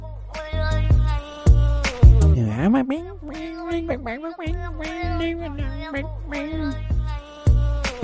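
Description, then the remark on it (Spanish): Repeated, drawn-out cat meows with sliding pitch ring out loudly over a steady, thumping rhythmic beat, like the meows are woven into music. “sigue siendo un gato, ¿eh?”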